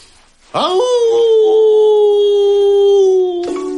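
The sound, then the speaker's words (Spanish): A person lets out a long, loud wolf-like howl, rising sharply at the start then holding a steady sustained tone for about three seconds before breaking off. “Una época para mostrar los colmillos, tener la mirada ardiente y sacar a la bestia que llevamos dentro para que pueda aullar con una euforia intemperada.”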